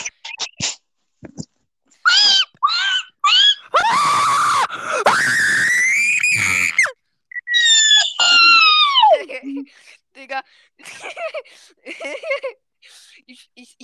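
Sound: loud screaming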